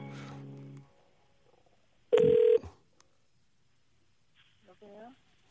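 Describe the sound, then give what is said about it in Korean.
A phone call being dialed to a listener during a broadcast: one loud, half-second electronic tone burst stands out after a brief voice, with a faint warbling phone sound trailing near the end. “한 분이라도 더 모시기 때문에 예, 바로바로 바로 전화 걸겠습니다.”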